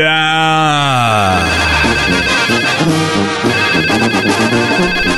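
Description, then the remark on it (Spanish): The call-in telephone at the radio station Radio Poder rings: a ringtone plays a loud, continuous melodic tune, opening with a sliding tone before settling into a repeating pattern; no one speaks. “Ahí sigue sonando el teléfono solamente en la mejor estación.”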